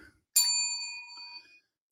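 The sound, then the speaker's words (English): A single bell is struck once, giving a bright, clear ding that rings out with shimmering overtones and fades away over about a second, heard on its own without any talking. “That's what the bell was for.”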